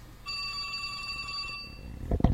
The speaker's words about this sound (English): Oh, here's here's the phone. I know it's gonna ring, and I want to be ready when it does.